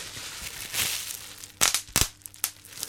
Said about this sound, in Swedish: sådana här kuddar som man kan knäppa på. Bubbelplast.